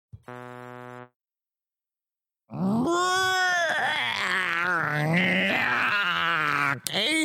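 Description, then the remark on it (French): A short, steady buzzing tone, then a pause, then a person imitating a big sheep answering with a long, loud, quavering bleat that wobbles in pitch for several seconds. “C'est le grand mouton. et le grand mouton va répondre.”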